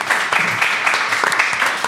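An audience applauds a guest on the radio station Radio Imo: a dense, steady wash of many hands clapping, with crisp bright claps popping through a continuous crackle at an even, fairly loud level throughout.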